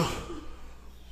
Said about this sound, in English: I sneezed.